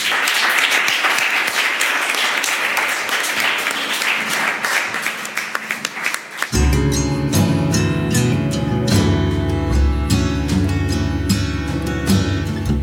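An audience applauds a guest speaker with dense, steady clapping for about six seconds, then it cuts off and a music bed with a low, sustained bass begins and carries on to the end.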